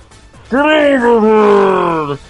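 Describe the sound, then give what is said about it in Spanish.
A voice imitates the "Get over here" battle cry as it sounds in a film, muffled behind the character's mask: a single drawn-out, groaning shout that sounds smothered. It is loud, lasting under two seconds, its pitch sagging slightly. “lo que sí me mosqueó un poco fue el característico grito de Scorpion, Get over here”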